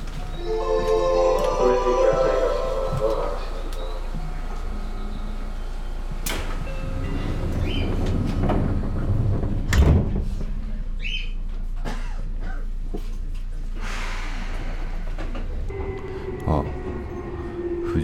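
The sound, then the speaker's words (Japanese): Inside a moving commuter train heading to Kokubunji Station in Japan: a steady low rumble with whining motor tones and faint voices in the background, broken by a few sharp clunks and a sliding-door rush around the middle. “電車に乗って国分寺駅を目指します”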